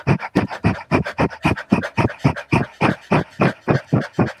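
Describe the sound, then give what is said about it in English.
A person pants rapidly like a dog as a breathing exercise, mouth open and tongue stuck all the way out, with quick, even, breathy huffs repeating about four times a second, fairly loud, with no talking. “and if you're you're having trouble getting it try panting like a dog so open your mouth stick your tongue all the way out as far out as it can go and pan, and, and start panting like a dog”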